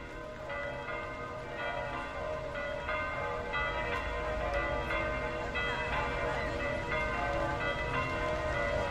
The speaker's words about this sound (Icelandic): Stundum eru hljóðin í umkörinu eins og tónlist í sjálfu sér, kirkjuklökkurnar á Peturstorgun í Róm eru dæmi um það, svona mínimaliskur sefin og hljómur katholskunar.